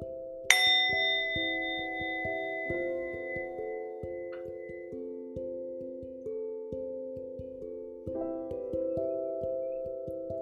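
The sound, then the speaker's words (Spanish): A meditation bell is struck once near the start of a meditation practice, its bright shimmering tone ringing out and slowly fading over several seconds above a soft, steady bed of low sustained tones. “Al escuchar la campana, cierra los ojos.”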